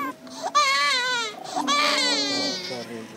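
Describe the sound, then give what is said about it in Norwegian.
A one-month-old baby girl in a remote village cries after receiving a drone-delivered vaccine, in two loud, wailing bursts, high-pitched and strained with a wavering tone, broken by a short gasp for breath between them. “gledet seg ikke akkurat over at hun ble det første barnet i hele verden som fikk en dronelevert vaksine.”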